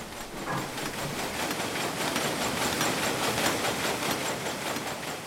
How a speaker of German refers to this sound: Im Websaal des Stadtlohner Unternehmens stehen sehr viel größere Webmaschinen. Aber keine 2000, wie das zu Hochzeiten deutscher Webereien üblich war, sondern lediglich 100. Einen hohen Lärmpegel produzieren sie dennoch.